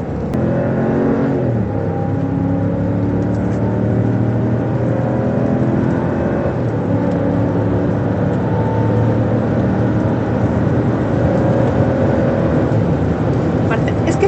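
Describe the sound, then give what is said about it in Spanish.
A car's 6.4 engine runs steadily, its low rumble rising and falling as it revs several times over a continuous idle, with faint voices in the background. “Ese sonido, Rafa. No, deja que oigas el, el, 6.4 que también es fabuloso”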